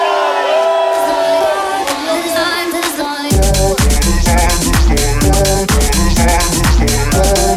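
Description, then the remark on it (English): A loud crowd cheers and whoops for the captain of the ship, the raucous shouting carrying on as a heavy, rhythmic thumping kicks in partway through and continues beneath it. “Any noise for the captain of the ship, man?”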